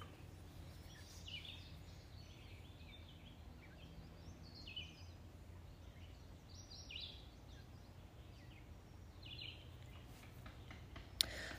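Scattered bird calls and chirps in the woods in the morning, several birds overlapping softly against a quiet outdoor hush with a low rumble of background noise.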